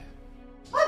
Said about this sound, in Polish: wśród blasku tego ogniska, słyszycie oczywiście szczekające psy, bo to są również tak. i psy,